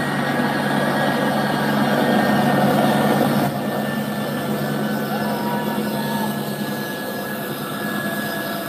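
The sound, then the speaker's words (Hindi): A large US Air Force plane's engines roar loudly and steadily, with people hanging onto the aircraft; a dense whining drone with a sustained hum that dips slightly midway and continues without pause. No one speaks. “और वो तस्वीर ये रही यूएस एयरफोर्स की विमान की और ज़रा देखिए क्या हालत है”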